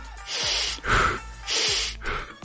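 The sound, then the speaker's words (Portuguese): Two sharp, audible breaths drawn in, each a quick airy gasp followed by a rougher rush of air, repeating in a steady in-out rhythm with no talking. “Aí que eu comecei a prestar atenção, falei, caramba, isso no podcast a gente não deixa isso passar, pelo menos não é comum você deixar isso passar, essa respiração.”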